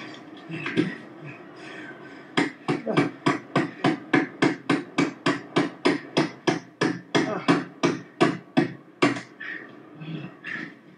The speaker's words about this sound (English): You need two pieces of wood. You got to hammer another one.